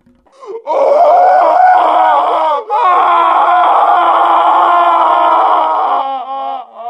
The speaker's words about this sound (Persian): این یک فریاد بود و این فریاد همیشه بوده است و ما که همیشه بوده ایم چرا تا به حال آن را نشنیده ایم؟ فریاد از پشت پرده بود